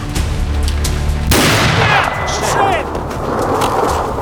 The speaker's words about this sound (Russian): он в Лермонтова выстрелил Да, 27 июля 1841 года Лермонтов погиб на дуэли под Пятигорском